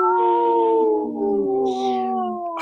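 A cat lets out one long, drawn-out howl, a steady wavering yowl that slowly sinks in pitch, loud, with no talking over it.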